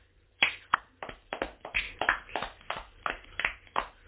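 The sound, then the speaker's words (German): Brief applause from a small group for the person who edits and uploads their recordings: a steady run of sharp, crisp hand claps at an uneven, fairly quick pace, moderately loud, with no voices. “Ach so, nochmal ein Applaus für den, der das macht.”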